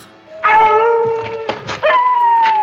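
Several wolves howl together in Paris, beside the Jardin des Plantes, long sustained tones that slowly bend and overlap, with a fresh howl rising partway through. No talking is heard.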